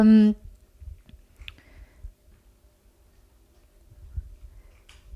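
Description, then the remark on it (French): A cat eating dry kibble: soft, sparse crunching clicks, quiet and irregular, with a brief voice sound at the very start and a low background rumble. “Ah, vous entendez peut-être Il y a mon chat qui mange ses croquettes.”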